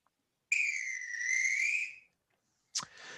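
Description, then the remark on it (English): A full-time referee's whistle sound effect gives one long, shrill, steady blast, then after a brief pause a second sharp, slightly raspier blast begins. Loud, with no voices. “obviously, because that's a nice little full time whistle sound effect I have found.”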